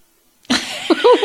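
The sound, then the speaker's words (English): A sharp, breathy sniffle right up against the microphone breaks a brief silence, followed by a short voiced, throaty sound as the breath trails off. “You hear my sniffling in the mic?"”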